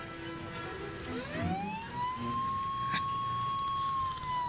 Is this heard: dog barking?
no